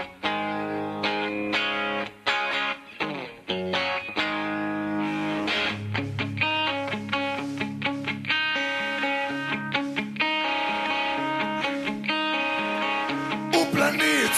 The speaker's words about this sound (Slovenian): Pa poslušajmo sedaj pesem ustavnih sodnikov …